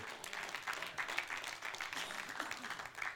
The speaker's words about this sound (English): See, that applause didn't get as much because that comes with a cost.